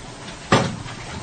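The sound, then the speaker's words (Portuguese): A single sharp clunk as an apartment door is opened, fairly loud, with a brief rattle trailing off against a quiet background. No one speaks. “abriu a porta do seu apartamento.”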